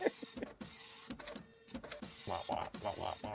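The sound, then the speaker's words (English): A printer runs, its mechanism whirring and clacking in uneven bursts as the paper feeds through, with short pauses between passes and no other sounds around it. “I wish I had a printer that was that good.”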